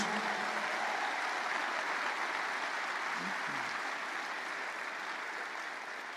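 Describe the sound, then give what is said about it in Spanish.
A crowd applauds the Lord Jesus, a dense, even wash of clapping that lasts about six seconds and holds at a constant loud level with no talk over it. “¿Qué tal si le damos un fuerte, fuerte aplauso al Señor Jesús?”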